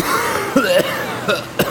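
A painful coughing fit from cigarette smoke in the lungs: four harsh, strained coughs in quick, uneven succession, fairly loud, with raspy throat sounds between them.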